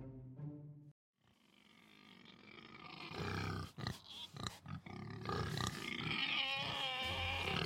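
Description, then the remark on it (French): A pig grunts and snorts loudly, a short voiced call first, then a run of harsh, rough grunts building into continuous squealing noise with no one talking. “Des scientifiques du monde entier se sont alliés pour tenter de comprendre le langage et les émotions du cochon.”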